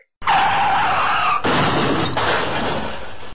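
A loud car skid: a harsh, continuous screech of tires that shifts abruptly twice over about three seconds, with no voices.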